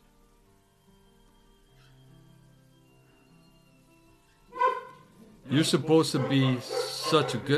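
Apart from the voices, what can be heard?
dogs barking and whimpering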